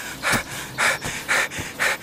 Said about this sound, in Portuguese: Entra o um mensageiro ofegante.